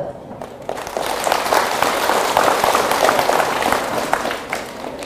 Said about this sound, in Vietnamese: nếu à, các con thấy rằng là việc à, học theo thói quen nói chân thật sống chân thật ứng xử chân thật là tốt cho mình và mình có thể làm được thì hãy dâng cao tràng pháo tay thật lớn